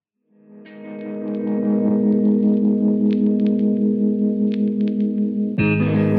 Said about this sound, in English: I'm going to go ahead, hit play on my end, and we're going to listen in. So everyone tune in to this amazing new song